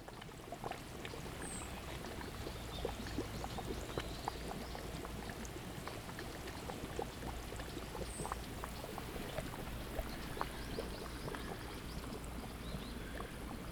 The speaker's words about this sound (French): Bruit de l'eau qui boue. Enfin, de la boue de la boue. On est dans un joli petit jardin. Derrière un hôtel, je crois, mais qui est ouvert. Petit jardin japonais avec des lanternes, des petits bonsaïs et de la boue qui boue.